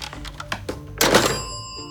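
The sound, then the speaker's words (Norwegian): A few light handling clicks, then a solid clunk as a telephone receiver is set down in its cradle at the end of a call, with a faint bell ting that rings on and fades away. “Det var Hilde Tendrup fra Kalde fakta som ringte.”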